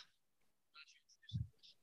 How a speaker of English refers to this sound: Okay, I'm sorry, just typing the scores out.